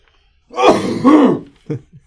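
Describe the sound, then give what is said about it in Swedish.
During a severe coughing fit, two harsh, raspy coughs run together over about a second, slightly muffled as the person turns away from the microphone, followed by two short, softer throat-clearing bursts. “Jag har drabbats av en vansinnig hostattack.”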